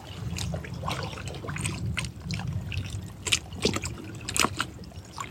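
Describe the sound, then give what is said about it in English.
Water trickles and laps continuously, with a low steady churn underneath and a few brighter splashes and drips standing out near the end. “feel the energy of the water moving right now.”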